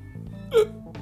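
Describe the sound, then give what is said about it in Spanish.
A single sharp hiccup pops out midway, fairly loud, with a brief breathy burst, against a low background murmur. “ese hipo te amigas.”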